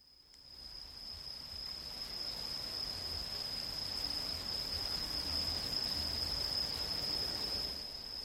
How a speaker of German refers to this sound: In dem mondbeschienenen Wald sind nur das Geräusch der Fußstapfen und das Summen der Insekten zu hören. Es herrscht eine fast unwirkliche Atmosphäre.